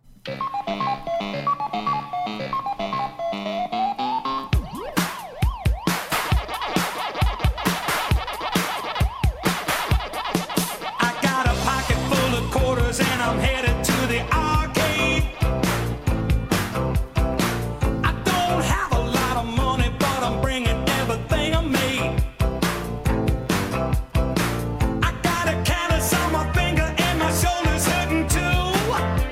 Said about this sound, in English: Pac Man was so fucking huge that a novelty song like charted in the '80s. Like this was getting regular radio airplay.